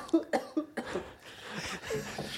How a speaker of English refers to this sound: laughed so hard he started coughing.